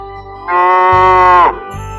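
A single long moo from a cow named Shirley, loud and sustained for about a second with a steady low pitch that bends downward at the end, over a low background rumble.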